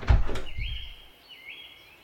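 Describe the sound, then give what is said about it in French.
A wooden door opens: two dull knocks of the latch, then the hinges let out two drawn-out, high creaking squeals with no one speaking. “Le chevalier ouvrit la seconde porte et franchit le cadre de bois.”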